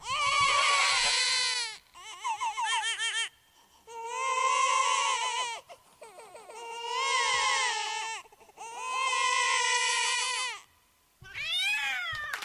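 A baby cries loudly in about five long, high-pitched wails separated by short breaths, each cry wavering up and down in pitch, with a shorter rising cry at the end and no talking.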